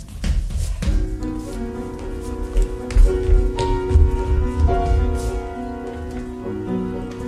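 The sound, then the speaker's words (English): A few sharp knocks on the door of a residence on the outskirts of East Berlin in October 1961 at the very start, followed by sustained music with steady tones and occasional soft thumps. No one speaks. “And there was a knock at the door.”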